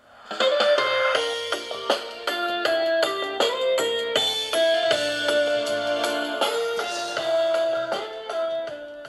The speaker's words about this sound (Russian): Подключаемся, берем смартфон и запускаем музыку. Давайте для начала я ее подержу в руках.